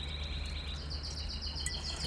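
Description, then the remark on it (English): Birds singing in the background, a steady high-pitched stream of rapid, repeating chirps over a low constant hum, fairly quiet, with no one talking. “The birds are singing.”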